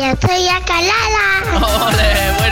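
A baby with arthrogryposis vocalizes loudly in long, continuous cooing sounds whose pitch rises and falls, with a few soft low thumps underneath.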